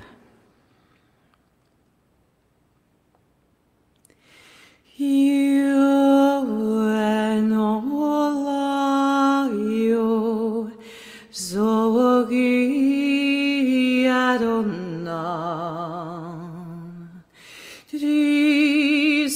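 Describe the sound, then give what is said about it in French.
After a few seconds of near silence, a singing voice enters with long sustained notes and gentle vibrato, loud, ringing out in a resonant, echoing space with brief pauses between phrases. “J'aimerais que tout le monde qui sont ici en train de m'écouter, j'espère que vous m'entendez bien avec la réverbération, et je vais vous demander de vous centrer ici pour écouter votre chant à tous.”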